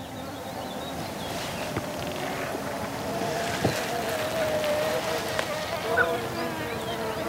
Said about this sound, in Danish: Prøv lige at høre sumsvigerfluerne. Ja.